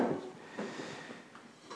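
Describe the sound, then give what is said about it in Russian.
A wooden chair with a wobbly leg that may break off is swapped for a straight chair and moved about, with a few dull knocks and short scrapes against the floor, no one speaking. “я боюсь, что ты сваришь что там ножка э, может отломаться от стула. Видишь, она подкашивается, и у нас уже такое было. Возьми прям, прямой стул.”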